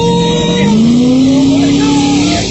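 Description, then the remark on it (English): A car engine roars loudly, its pitch climbing steadily as the car speeds up and skids, with a rough, gritty road and tire noise underneath throughout. “Oh, stop the car! Slow down!”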